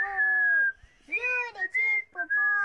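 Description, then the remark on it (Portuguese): A person whistles an imitation of a juriti dove's call, making a long falling coo followed by several shorter rising and steady tones. The tones are clear, fairly loud, and have no other sound behind them. “O que é Pupu? É uma pombinha que ela é faz assim.”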